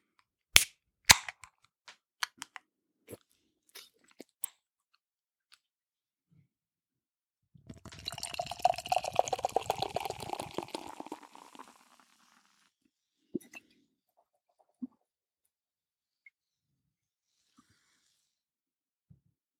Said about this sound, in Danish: Og jeg har et tyk, tyk skum, men jeg, jeg har også taget et øh, glas fra bryggeriet, øh, hvor der var plads til at hælde sådan relativt meget af dåsen op.